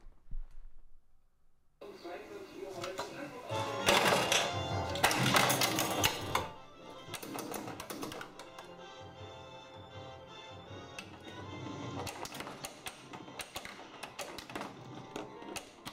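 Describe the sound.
An Indiana Jones pinball machine in play: rapid mechanical clacks, rattles and ticking with bursts of bright electronic tones and music, busy and fairly loud after a short quiet start, with some voice-like sound mixed in.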